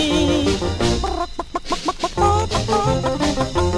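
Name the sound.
hen clucking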